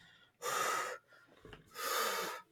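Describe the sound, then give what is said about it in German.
Two loud, heavy breaths, each a long airy rush separated by a short pause, as someone sitting on the ground catches their breath after walking through a forest. No talking. “Du verschnaufst, du atmest durch.”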